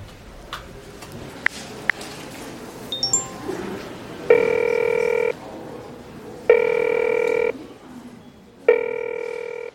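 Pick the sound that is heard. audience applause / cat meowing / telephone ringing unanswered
telephone ringing unanswered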